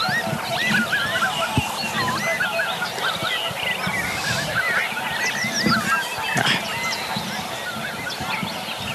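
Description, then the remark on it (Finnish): A flock of swans calls in the morning as they fly over the far side of an open field, many honking, bugling voices overlapping continuously, heard from some distance with a steady outdoor background. “Ja sitten jossain vaiheessa aamua joutsenet lensi tuolla ihan pellon toisella puolella, mutta tosi hyvin myös tämä mikrofoni sai napattua niiden äänen.”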